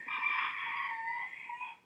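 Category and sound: bird, rooster crowing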